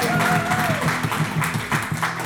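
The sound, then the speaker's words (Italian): Steady, dense audience applause fills the whole clip at a loud, even level, with voices calling out and cheering over the clapping. The applause is for the show's technician who handles the technical side and graphics. “E allora non dimentichiamo colui che eh, ci cura la parte tecnica e la grafica, facciamo anche un grande applauso al tecnico RVM”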